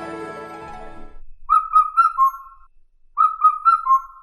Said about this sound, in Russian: Индийская кукушка. Краткое описание. Это кукушка средних размеров.